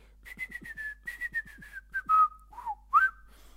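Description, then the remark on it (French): A person whistles an imitation of blackbird song: a quick run of short, repeated chirping notes, then a few sliding, warbling phrases, clear with no talking. “J'ai gagné grâce à mon imitation du chant du merle noir.”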